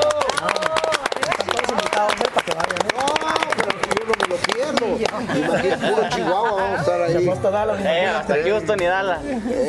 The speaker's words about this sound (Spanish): Fuerte el aplauso para la fiesta.